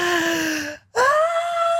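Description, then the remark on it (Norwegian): A voice imitates a child's sharp, voiced gasp before crying: a drawn-out whiny tone, a brief silence, then a sudden rising intake of breath that holds steady, fairly loud with no other talk. “Mange sånn Stille, stille, stille, stille. stille De trekker pusten, så bare”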